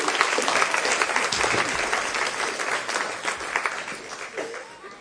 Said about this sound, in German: Erstmal einen Applaus für meine zehn Helfer, die dürfen sich mal wieder setzen.